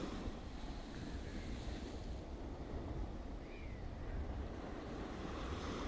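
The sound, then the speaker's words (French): Steady ocean surf washes onto the shore in a continuous, even rush of water with no distinct individual breakers, moderately loud, with some wind noise and no voices. “Ces vagues viennent maintenant jusqu'en bas de ton dos et emportent avec elles tous ces problèmes tout ce qui a pu t'arriver aujourd'hui ou dans les jours précédents.”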